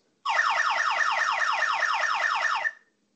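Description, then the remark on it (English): A loud electronic building fire alarm wails in rapid, repeating downward sweeps, about four per second, sounding steadily for a couple of seconds during a fire alarm test before cutting off, with no voices present. “The fire alarm test is now complete.”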